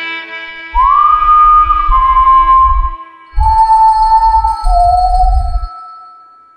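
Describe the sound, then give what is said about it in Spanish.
A traveler whistles a melody while walking on toward the horizon at sunrise, a few long, sustained notes that step slowly downward in pitch, loud, over pulsing low-pitched accompaniment that stops and restarts between phrases. “el viajero continuó con su camino, esperando continuar con la misión de su vida, perdiéndose en el horizonte y dejando salir un silbido en honor allegado de su familia.”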